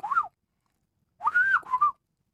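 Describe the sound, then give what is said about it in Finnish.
A person in a studio whistles a fluting, bird-like phrase imitating a golden oriole: a short swooping note, a pause, then a longer warbling run of rising and falling tones, clear with no talking. “Tämä on sellainen laji, jota periaatteessa voi matkia sillä tavalla, että kuhankeita keittäjä koiras saattaa jopa vastata sitten.”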